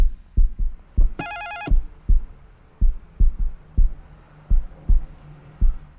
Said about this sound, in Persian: زنگ خونشون رو زدم